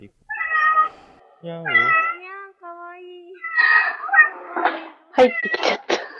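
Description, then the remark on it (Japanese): A student's pet domestic cat meows over and over during an online class, about five drawn-out calls in quick succession, fairly loud. Some calls waver in pitch and the last few turn rougher and more strained. “また、学生の飼い猫が参加して、場を和ませるのも新しい授業の形態となりました。”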